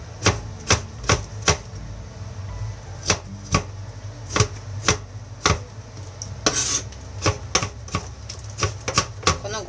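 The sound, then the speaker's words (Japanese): A knife chops burdock root on a cutting board, about twenty crisp knocks in a loose, uneven rhythm over a low steady hum, with no talking. “ぼうの切る音は最高だなただこの音を聞きたいがために作るっていうのもありかもしれない”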